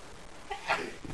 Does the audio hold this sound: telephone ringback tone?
no